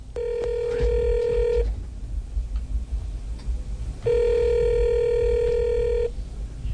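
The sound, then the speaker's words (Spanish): A telephone dialing tone from a recorded call made by former president Uribe to Angelino Garzón: two long, steady, buzzy beeps of about two seconds each, separated by a quiet pause of roughly two and a half seconds, with no voices. “de una llamada, porque aquí no chuzamos, tenemos las grabaciones.”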